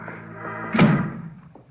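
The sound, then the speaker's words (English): A door shuts with a single solid thud partway through, landing over a steady tonal background hum that continues and slowly fades afterward. “Close that door.”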